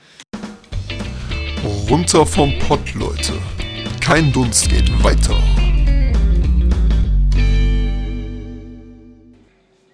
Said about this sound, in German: Ähm, können wir kurz eine Pause machen? Ja, klar. Dann haue ich immer kurz den Pausenjingle rein.